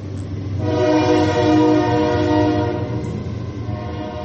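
A loud, sustained whistle blast, rich and reedy like a train whistle, holding steady for several seconds over a low rumbling background, with no voices.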